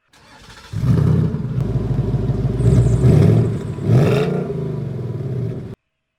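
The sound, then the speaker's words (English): A primitive chemical combustion engine cranks briefly, then catches and roars loudly, its rumbling, clattering idle swelling in two revs before cutting off abruptly into silence. “It was an actual chemical engine. Something from a thousand years ago. Ridiculously primitive, and yet, I found when I pressed my forehoof on a pedal in the floor, the engine roared.”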